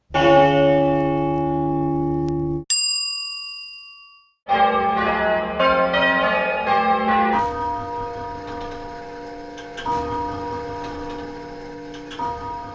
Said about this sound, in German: Wie wäre es mit Glocken?